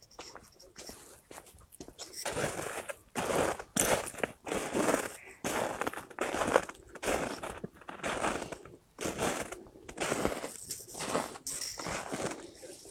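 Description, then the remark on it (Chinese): Footsteps crunching through leftover unmelted snow piled along a roadside, around a dozen loud, gritty steps in a steady walking rhythm after a quiet opening second or two, with no one speaking. “我踩的雪脚踩在雪地上的声音，就是有一些还没有化的积雪，然后在路边聚集着，你的脚踩上去就会有非常清晰的声音。”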